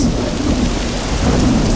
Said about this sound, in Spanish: ¡Es diluvio! diluvio!